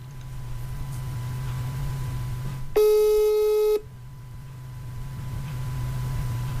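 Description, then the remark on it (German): A phone call attempt: a single telephone ringback tone of about a second, steady and mid-pitched, sounds over a low humming background. No one answers, and no voices are heard. “Da könnte sein, dass wir was rausschneiden müssen, wenn er rangeht.”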